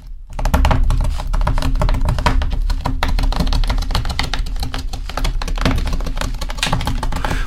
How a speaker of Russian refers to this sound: Я понимаю, что радиослушателям его не видно, но если будет позволено в порядке эксперимента, мы бы сейчас написали на этом брайлевском приборе «Луи Брайль. Информационная революция».